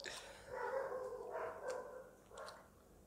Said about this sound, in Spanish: ¿Podría cerrar un poco la puerta? Muchas gracias, porque se mete el ruido de los amados perros.